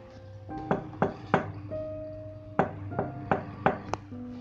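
A woman strikes an iron plate knocker hanging on an old wooden door in two bursts, three sharp blows and then about five more, each clank ringing with a brief metallic tone. No one speaks.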